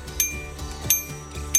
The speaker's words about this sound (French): Et la particularité qui différencie nos deux vélos, c'est la sonnette. Donc on a le côté un peu plus brut, voilà, ça c'est Ralou. Et le côté un peu plus girly, je dirais,